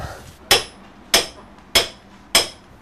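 Four sharp hammer blows strike a boat at a steady, unhurried rhythm, each a bright metallic crack with a short ringing decay, with no voices.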